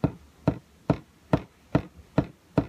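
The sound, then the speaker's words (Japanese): A steady, even run of seven short, muted percussive strokes on ukulele strings, moderately loud, mimicking a hi-hat beat with no talking. “あとはですね、えっ、ー、と、アクセントをつける時の、えー、ま、基本というかなんですけども、例えばそのハイハットの音が”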